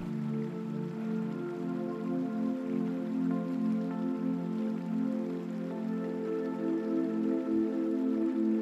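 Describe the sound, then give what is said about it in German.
Steady, gentle rushing water of a river flows without pause, with soft splashes and drips over a continuous wash, mixed with a faint sustained musical hum, as nature sounds in a sleep meditation. No voices. “In der Einschlafmeditation machen wir eine Traumreise an einen Fluss, an dem wir die Naturgeräusche des Flusses wahrnehmen”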